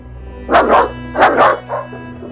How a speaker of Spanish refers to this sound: Maldito eres para toda la vida me dijo, antes de frotarme ají en las heridas y echándome a los perros, para que éstos acabaran con mi vida.